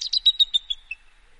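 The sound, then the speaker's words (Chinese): A newly hatched, wet baby bird with a yellow beak chirps in a quick run of about six thin, high-pitched peeps that weaken and trail off within a second, with no voices alongside. “鳄鱼爸爸惊呆了，因为他看见了一只湿乎乎的、长着黄色嘴巴的小鸟。”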